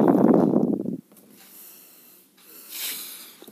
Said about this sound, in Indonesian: sorry ya kalau banyak hembusan nafas ya kalau rekaman tengah malam memang kurang gitu ini ya kurang gitu optimal sebenarnya buat gua